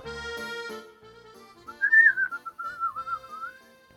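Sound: human whistling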